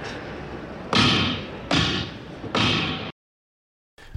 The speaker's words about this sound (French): So in other words, all you have to do is imagine that these two pads here are extra keys on the keyboard. And when I hit that pad, it's exactly the same process as if I was playing a key on the keyboard.